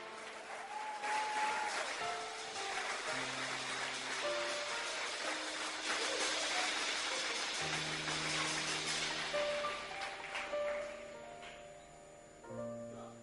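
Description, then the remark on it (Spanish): An audience claps for the Lord steadily for several seconds, a dense wash of applause over sustained organ or keyboard chords that shift pitch underneath, the clapping fading slightly toward the end. “Si lo cree, dele de palmas al Señor.”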